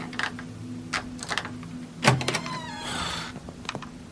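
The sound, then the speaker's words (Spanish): A door is unlatched and opened, with scattered clicks, a solid clunk midway, then a drawn-out creaking slide, all over a steady low mechanical hum. “abre la puta puerta ya.”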